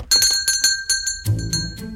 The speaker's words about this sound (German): Bevor sie noch weiter darüber rätseln konnten, klingelte es an der Ladentür.